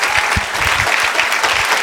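Audience applause: a steady, dense wash of many hands clapping at once, moderately loud and continuous for the whole stretch, with no voices standing out above it.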